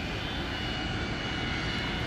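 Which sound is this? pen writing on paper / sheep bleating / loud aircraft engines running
loud aircraft engines running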